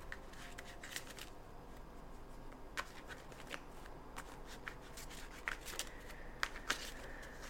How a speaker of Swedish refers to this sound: Så jag har mina tarotkort här och jag kommer blanda dem ordentligt.